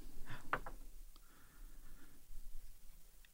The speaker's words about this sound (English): Did you cool. just roll a d4? Yes, I did. well, the dice have chosen me.